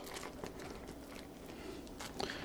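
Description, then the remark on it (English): Scissors snip through a plastic bag, cutting it open a little more, giving a steady run of crisp crinkling and small crunchy clicks for a couple of seconds, fairly quiet, with no talking. “And what I'm going to do, hang on, I'm going to cut this bag open a little bit more with the scissors.”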